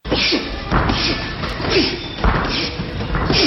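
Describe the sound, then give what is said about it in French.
A run of heavy punches landing in quick succession, loud, with thuds and whacking strikes coming roughly every half second against a busy, echoing background in a boxing gym during Muay Thai training. “Comme elle manque de mots pour s'exprimer, ça sort sous forme de coups et d'onomatopées dans une salle de boxe taille.”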